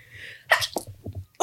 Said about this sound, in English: Bless you. Sorry. Two seconds. I'm gonna just like go, come away from the mic. yeah, it's all right. you know, sneezing is a COVID symptom now.